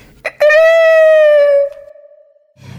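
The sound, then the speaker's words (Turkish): One loud, drawn-out rooster crow, held steady for over a second before it trails off and fades. It stands alone with no talking around it. “Ben horozum horoz derdim tasam yok İstediğim gibi gezer tozarım İstersem çıplak mısır döyerim Kuralları ben yazarım bozarım Ürü ürü ürü”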